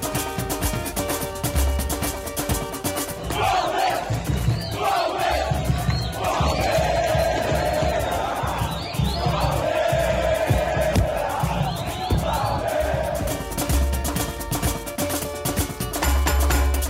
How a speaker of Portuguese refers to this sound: vinheta nova para uma série nova de podcasts para vocês aqui no GE